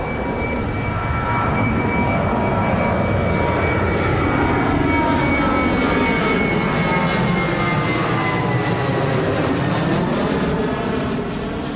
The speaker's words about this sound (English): Planes still roar over Neptune Road today.